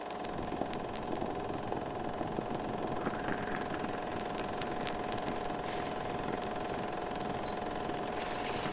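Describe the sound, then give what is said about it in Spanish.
A Vialetti stovetop moka pot coffee maker, Holstein brand with Italian design, brewing with a steady bubbling hiss and a faint rattling hum that holds at an even level throughout, with no voices. “Aquí suena mi cafetera Vialetti, marca Holstein, pero diseño italiano.”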